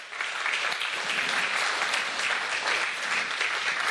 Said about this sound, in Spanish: Por eso, eh, dele, palmas al Señor, hermano, aleluya.